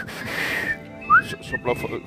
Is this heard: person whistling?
yes